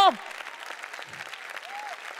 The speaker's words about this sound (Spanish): Si le va a dar a Dios el aplauso,